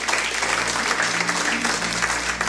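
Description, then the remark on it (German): A crowd claps steadily to encourage people who made this decision for the first time that day, a dense, sustained wash of applause, fairly loud and even, with a low hum underneath. “Lass uns mal die ermutigen, auch durch Applaus, die heute das erste Mal”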